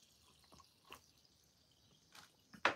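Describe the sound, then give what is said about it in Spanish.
Spilled water dripping, a few irregular drops landing one at a time, with the last drop noticeably louder than the rest. “Entonces, dejen quito los audífonos porque se cayó ahí el agua y se van a echar a perder.”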